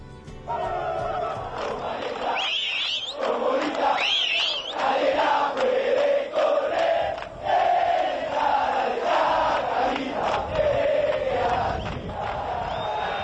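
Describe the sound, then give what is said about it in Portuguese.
A large crowd of football supporters chants, in unison, a song whose melody is widely used across Argentina. The massed voices are loud and continuous with rhythmic swells, and a few piercing whistles or shouts rise above the roar. “a La famosa banda de San Martín, que é a barra brava do, do Chacarita”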